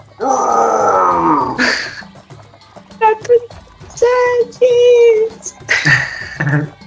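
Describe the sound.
A person vocally imitates an animal's roar as if from afar, with a series of drawn-out, growling calls and short grunts, loud, separated by brief pauses.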